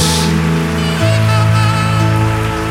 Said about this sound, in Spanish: Amén, amén. Puedes darle un fuerte aplauso a nuestro Dios.